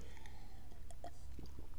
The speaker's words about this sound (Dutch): Even een slokje water.